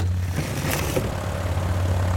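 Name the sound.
airplane engine in flight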